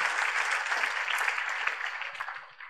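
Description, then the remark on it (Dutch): A crowd at an evening church service applauds steadily, a dense wash of many hands clapping at a fairly even loudness that begins to thin out near the end. “Als je gelooft dat God iets voor je heeft vanavond, geef een heel groot applaus.”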